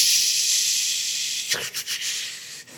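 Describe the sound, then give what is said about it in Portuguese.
A voice imitates the static of a small radio tuned to a Rio de Janeiro station over shortwave, a steady breathy hiss running nearly three seconds, briefly fluttering and breaking up a few times near the end. “Eu me lembro que eu aqui no rádio, com, com um rádiozinho, eu adoro rádio, com um rádiozinho, aí sintonizava a rádio do Rio de Janeiro, através das ondas curtas, através das ondas curtas.”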